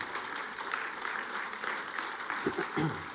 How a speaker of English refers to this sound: We got to cl- clap for that group too. I think that's just awesome.